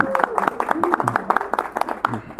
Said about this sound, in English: Give them a round of applause.